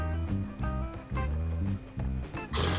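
Horses neigh in a run of loud, harmonic whinnies, several calls following one another in quick bursts, before a sudden rush of noise cuts in at the end.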